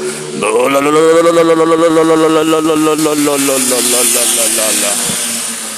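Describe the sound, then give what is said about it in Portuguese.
A voice imitates a motorcycle engine revving, a loud, sustained buzzing drone with a rapid rhythmic flutter that holds steady for several seconds before trailing off. “Um hétero na moto vai estragar meu dia. Cortou de giro, cachorro, você é louco.”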